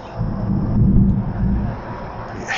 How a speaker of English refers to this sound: And uh, today we're on beautiful Mobile Bay uh, down on the Alabama Gulf Coast. We got a storm coming um, lightning, thunder